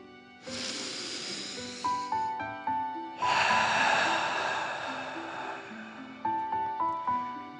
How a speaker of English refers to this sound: let's start by taking three deep dragon breaths. Breathe in through your nose, filling up your chest and belly, and then out through your mouth, pretending you are breathing fire. Ready? Okay. Deep breath in and out.